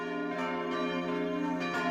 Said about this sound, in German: Kirchenglocken